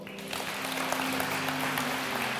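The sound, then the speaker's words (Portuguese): Steady applause from a church audience clapping to praise the Lord, a dense wash of many hands clapping at a constant, moderate loudness with a low sustained hum underneath, no voices heard. “Se você recebe essa palavra, aplauda o Senhor, meu irmão.”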